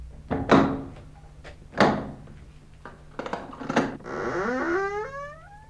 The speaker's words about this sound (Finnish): Kun jyskytys uusiutui, tein sen ainoan, mitä tehtävissä oli. Menin avaamaan oven salvan.